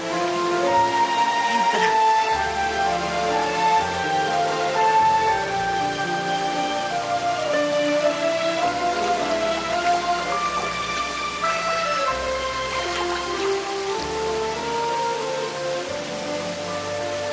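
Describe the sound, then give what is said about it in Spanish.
Steady, dense splashing of fountain water runs continuously at a fairly loud, even level, with sustained melodic tones drifting over the rushing spray throughout. “En un momento dado, ellos están solos en el mundo el ruido de las aguas empieza a desaparecer.”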